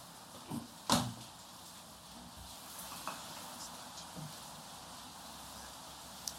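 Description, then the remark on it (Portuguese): A window is shut while it is raining, with one sharp clunk near the start, followed by a couple of faint knocks and light handling sounds over a steady, quiet hiss. “Só ver um, só fechada a janela direitinho, só um segundo.”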